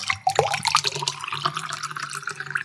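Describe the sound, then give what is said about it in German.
Water pours steadily into a glass for a toast, a bright gurgling splash with a rising tone as it fills, fairly loud for a few seconds. “ein Wasser genehmigen.”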